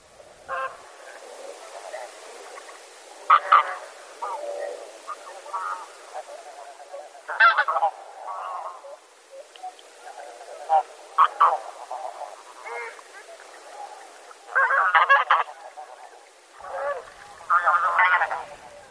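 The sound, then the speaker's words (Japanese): A flock of taiga bean geese in Tome City, Miyagi Prefecture, Japan, calls throughout, overlapping nasal honks rising in loud clustered bursts over a steady murmur of softer calls, with no one speaking. “宮城県登米市のヒシクイをお届けします”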